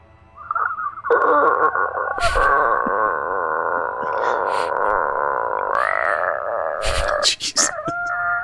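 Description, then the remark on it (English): A drawn-out vocal imitation of a creaking door slowly swinging open, a wavering, groaning tone held for several seconds with a few clicks and bumps near the end. “There's the sound of the door opening.”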